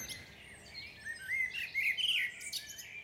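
A dense chorus of many birds sings and chirps at once in a forest at dawn, overlapping whistles and trills filling the air continuously, with no talking.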